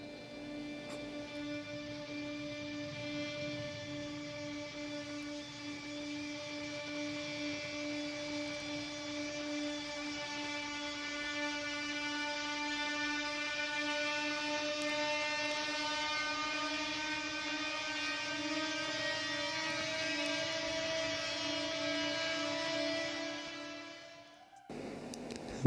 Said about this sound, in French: Pour frotter sur les cordes, ouais. Et c'est ce qui donne ce ce, sont son vraiment euh, stressant.